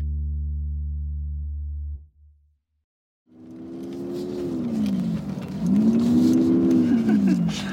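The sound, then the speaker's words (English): A low, steady engine drone stops, then after a short silence a truck engine roars back in four-wheel drive, revving hard at full throttle as the truck inches up a steep hill, its pitch rising and falling under strain, loud. “we threw it in four wheel drive, and eventually we just had to floor it and inch our way up the hill.”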